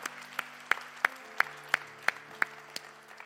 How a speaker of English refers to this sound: Can we give these individuals that raised their hand today a huge round of applause? Come on, FC.